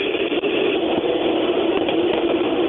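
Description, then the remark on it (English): A loud, steady rushing roar, like engine or road noise, fills the line for a few seconds as phone audio cuts over to a car's Bluetooth. No one speaks over it. “Sorry, my uh, my phone decided to switch on to my car's Bluetooth.”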